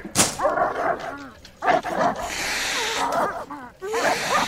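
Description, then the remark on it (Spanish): Several dogs bark repeatedly in sharp, overlapping bursts, fairly loud, mixed with yips and whines while a person shouts at them to get out. “¡Perros! ¡Perros! ¡Fuera! ¡Fuera! ¡Largo! ¡Fuera!”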